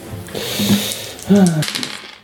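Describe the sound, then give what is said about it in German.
Two dice clatter and tumble across a hard tabletop during a game in two short bursts of rattling, fairly loud, with a brief voiced murmur over the second roll. “Dann habe ich jetzt nur noch zwei Würfel.”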